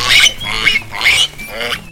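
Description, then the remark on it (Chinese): A little sow eating carrots in mud grunts and snorts in a quick series of about four rough, harsh bursts over two seconds, loud and raspy, with no talking. “贝贝小鸡又继续往前走，他遇到了他的朋友小母猪格雷亚。”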